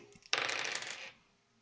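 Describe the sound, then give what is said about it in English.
Two dice are rolled on a table in a short, bright clatter, a quick rattling burst of small clicks lasting under a second before settling into quiet, landing on a six and a four. “I got a six and a four, so ten.”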